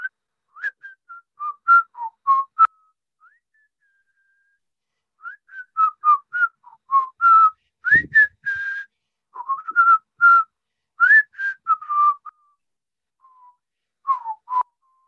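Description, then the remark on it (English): A person whistles a melodic song tune, in bright rising and falling phrases with brief pauses between them and a soft low thump partway through. “let me guess a song guess a song that you're whistling”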